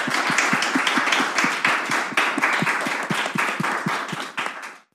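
An audience applauds steadily at the end of an on-stage conversation, many hands clapping in a dense, rapid patter that holds at an even loudness for about five seconds before cutting off. No one speaks over it.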